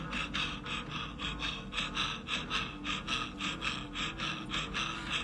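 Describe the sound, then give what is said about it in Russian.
Rapid, forceful active breathing through an open mouth during a guided kundalini energy exercise, a steady rhythm of about two airy, hissing breaths per second that continues throughout without any talking. “И вы продолжаете активное дыхание ртом и поднимаете энергию выше, вниз своего живота, в область своей матки.”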